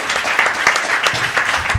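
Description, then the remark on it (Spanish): Dense crowd applause at the Pofe 2014 podcaster event in Argentina, a steady wash of many hands clapping at once with a few sharper individual claps popping out, fairly loud throughout with no talking over it. “Dale que aplaudí.”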